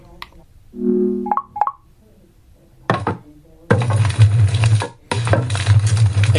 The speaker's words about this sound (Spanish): efectos de fuego.